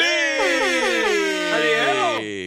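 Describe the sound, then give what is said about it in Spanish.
An alarm buzzer blares loudly and continuously for a couple of seconds, a harsh, buzzy tone whose pitch wavers up and down before cutting off near the end. “alarma, la alarma.”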